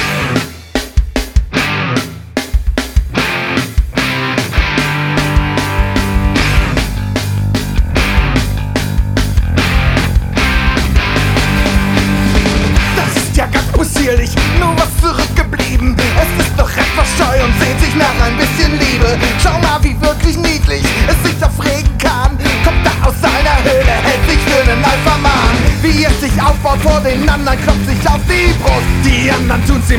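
A loud, dense band song plays without a break for the whole stretch, driving instruments under rough, shouted vocals, full.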